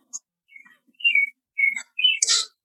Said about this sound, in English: I hear the birds. You hear the birds?